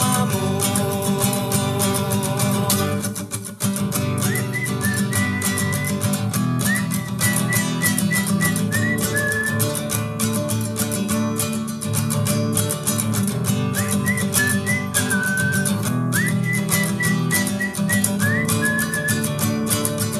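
Full, steady music from a musician's first solo album plays loudly throughout, a dense band of instruments with a high, gliding whistle-like melody weaving in and out of phrases, and no voices speaking.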